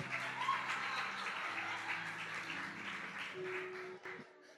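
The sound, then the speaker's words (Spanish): An audience applauds steadily, a dense wash of many hands clapping that holds for several seconds before thinning out at the very end, with a faint low hum underneath. “Te mete 10 minutos allí, huele a lechuga, a pollo, a, a, pan de queso, aplauso.”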